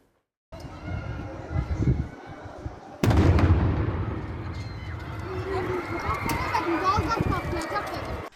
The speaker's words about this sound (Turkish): İddiaya göre mangaldaki alevler piknik tüplerine sıçradı. O tüpler binanın teras katında bomba gibi patladı.